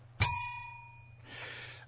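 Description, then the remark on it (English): A single bright bell strike rings out sharply, its clear metallic tone lingering and slowly fading for about a second, followed by a soft rustling noise. “Where's my bell gone?”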